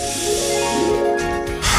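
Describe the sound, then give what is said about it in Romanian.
A steady aerosol deodorant spray hisses continuously for about two seconds as it is sprayed under the armpits, fairly loud, with a faint tonal hum running underneath and a brief burst of extra hiss near the end. “Dă cu spray la subțiorii.”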